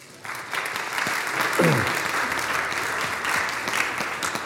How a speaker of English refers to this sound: and, and also their youth leaders. Um, and also, yeah, you clap for that too